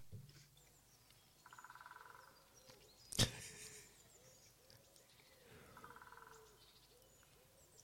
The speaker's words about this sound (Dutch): specht. Ja, maar welke? Bonte, bonte specht. Ja, maar welke?